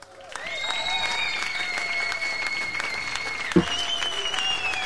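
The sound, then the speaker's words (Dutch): A steady burst of applause from a small crowd, clapping continuously for several seconds at moderate volume, with a faint whistle-like tone running through it. “In ieder geval een applausje voor de, dat je dat toch weer”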